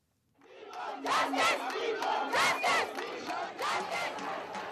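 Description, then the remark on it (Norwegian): A crowd of Indian women, in street protests after a 23-year-old woman was gang-raped on a bus in Delhi, shouting for justice in loud, rhythmic chanted bursts, voices rising and falling in repeated surges, sustained throughout with no individual speech standing out. “Indiske kvinner roper på rettferd.”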